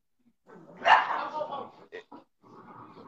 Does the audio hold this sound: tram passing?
no